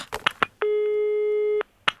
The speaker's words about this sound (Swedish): Då, då, då ringer vi Länsförsäkringar igen då.